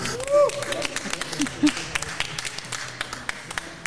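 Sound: audience clapping and cheering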